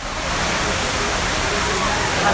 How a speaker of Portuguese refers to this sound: Ouça o barulho da cachoeira, caros ouvintes, olha.